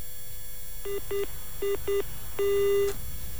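A telephone busy tone after a listener's phone-in call from Pesanggrahan, South Jakarta, to the Elcinta radio show was cut off: two pairs of short electronic beeps, then one longer sustained beep, clear over faint line hiss with no talking.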